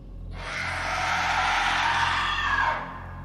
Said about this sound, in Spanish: Ante la mención del nombre del guardabosques, ella se exaltó. Su boca se abrió de par en par con un fuerte grito saliendo de ella.